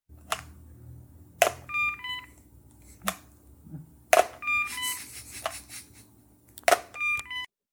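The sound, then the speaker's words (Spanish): Skype call tones ring out in repeated bursts as a Skype call is placed to someone with a cell phone and earpiece in the streets of Cali, each with a sharp onset and stacked bright tonal lines, spaced a second or more apart over a low steady hum, with no talking. “con su teléfono celular y un auricular recibiendo nuestra llamada de Skype.”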